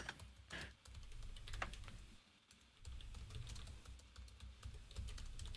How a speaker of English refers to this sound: I, am typing.